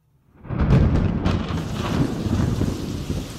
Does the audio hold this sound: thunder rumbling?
yes